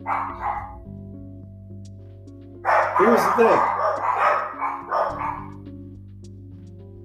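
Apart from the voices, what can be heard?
dogs barking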